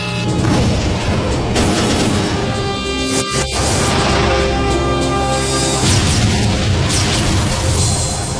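Main cannons fire armor-piercing shells at a 12-degree firing correction angle: heavy, booming cannon fire rolls through a dense, loud rumble, with sharp blasts standing out around the middle and the roar sustained throughout, no voices heard.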